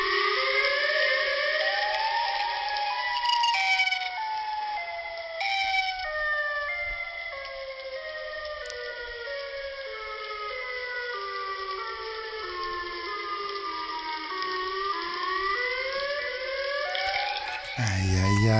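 A civil defense warning siren of the kind tested on Tuesdays at 10 a.m. wails steadily, its rising and falling harmonic tone sustained and loud for the whole stretch, with no voices over it and a brief burst of noise at the very end.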